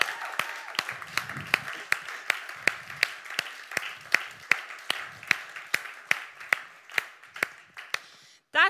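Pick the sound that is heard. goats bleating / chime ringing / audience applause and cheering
audience applause and cheering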